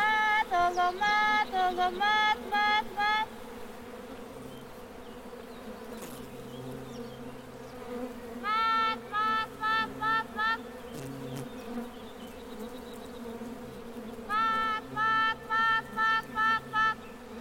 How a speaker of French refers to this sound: ne peut jamais être séparé du son des abeilles.